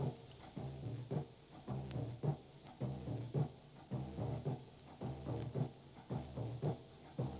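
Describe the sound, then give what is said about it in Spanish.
A large surdo bass drum, presented by a musician, booms in a steady, repeating rhythm, deep resonant strokes alternating with lighter muted hits, loud with no voices. “Este se llama zurdo grande.”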